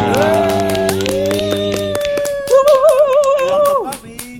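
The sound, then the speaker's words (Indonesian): Quick, steady hand claps run through the whole stretch, mixed with a tuneful sustained melody that wavers near the end. No one speaks. “kerasa nih kami kalian kita semua sudah menginjak episode ke 10 tepuk tangan lagi dong.”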